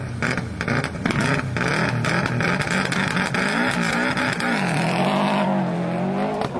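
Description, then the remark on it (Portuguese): A rally car engine roars loud from inside the cockpit during a special stage of the 32nd Rally de Portugal (TAP Rally Portugal), March 1998, in northern and central Portugal, revving hard with rising and falling pitch as it shifts gears, with rattling and road rumble throughout. “Este é o som de uma dessas provas de classificação captado no cockpit de um dos carros do Rally”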